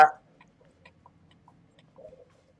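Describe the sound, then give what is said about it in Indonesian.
Quiet forest ambience with faint, scattered bird calls and clucks, opening with a brief louder burst and ending with a short warbling call. “Suara hutan, hutan yang penuh dengan manuk.”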